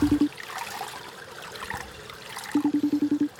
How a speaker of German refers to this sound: Jetzt geht der Regen auch richtig was.